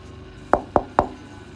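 Three sharp knocks on a door at daybreak, a woman who had come back knocking, in quick, even succession, each a hard thud with a short ring, standing out clearly against a quiet background with no one speaking.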